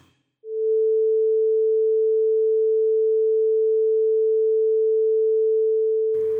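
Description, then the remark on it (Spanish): A pure electronic sine tone, a steady mid-pitched hum with no overtones, starts abruptly and holds at constant pitch and loudness for about six seconds before cutting off. “Usando este generador de tonos puedo sacar la misma frecuencia fundamental sin armónicos. Ahora sí vamos a escuchar los 440 Hz puros.”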